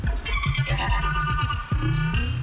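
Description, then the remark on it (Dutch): Dense experimental electronic music with warbling, sweeping synth tones that squeal and chirp like dolphins over a throbbing low layer, loud and continuous with no voices. “Wat voor elektronische dolfijnen is het?”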